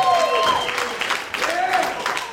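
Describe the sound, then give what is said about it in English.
A crowd boos the Mets, a sustained wash of many voices with drawn-out, droning tones that swell, dip briefly, then rise again over a constant background of audience noise. “Someone booed the Mets?”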